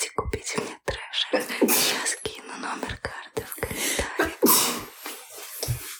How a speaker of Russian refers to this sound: Сейчас чихну, подожди.